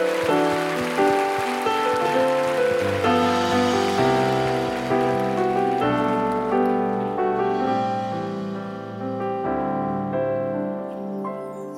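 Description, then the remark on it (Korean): An audience's steady, crackling applause, given as thanks and glory to the Lord during worship, rolls beneath sustained keyboard chords that shift every second or two, the clapping thinning out toward the end while the music carries on. “우리 주님께 감사 영광의 박수 올려드립시다.”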